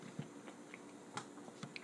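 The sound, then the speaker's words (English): Bread being broken into a pasta bowl during a shared meal: a few brief, irregular crackles and snaps of crust tearing, quiet, with no voices. “That's the sound of breaking bread.”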